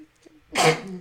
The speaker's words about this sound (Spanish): Y también es como, ¡ah, salud!